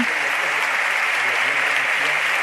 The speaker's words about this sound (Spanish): Decimoquinta ovación que interrumpe el pregonero.